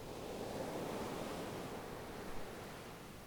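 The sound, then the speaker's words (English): A steady, broad wash of ocean surf rolling onto the shore, fairly soft and continuous with a gentle swell near the end, and no voices. “Sit down in the water, at a depth where the waves smash into your chest and face as they roll into shore.”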